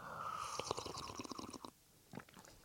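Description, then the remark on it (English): Wet mouth gurgling and slurping made by a person on purpose: a rapid bubbly run of squelchy clicks for over a second, then a brief pause and a few softer smacking sounds. “Um, I don't really gurgle like that or slurp like that, but I did that.”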